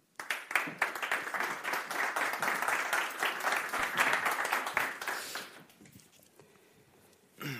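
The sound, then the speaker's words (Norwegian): A crowd applauds steadily for about five seconds, dense overlapping claps welcoming the first panel speaker, a co-founder and project leader, then the clapping fades out and a brief sound rises at the very end. “En varm applaus til han.”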